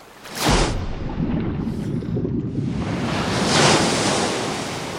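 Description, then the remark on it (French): A loud, roaring wave at sea crashes in abruptly, rising too fast beside a boat, followed by a continuous rush of churning surf that swells again into a second heavy surge before easing slightly, with no voices. “donne un coup de barre à droite pour euh, affronter de face euh, la vague, mais elle se dresse trop rapidement”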